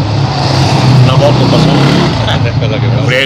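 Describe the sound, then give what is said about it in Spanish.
A motorcycle engine drones loudly and steadily as it passes by, filling the whole moment, with a voice speaking faintly underneath. “una moto pasó.”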